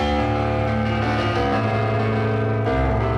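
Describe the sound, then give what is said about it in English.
A loud, heavily distorted piano chord, recorded through a bass amp, a distorted guitar amp and the line, rings out with thick, buzzing sustain and a touch of echo, shifting to a new chord near the end; no voices. “We recorded the piano through a bass amp, through a distorted guitar amp, and through the line, and that's why it sounds like this.”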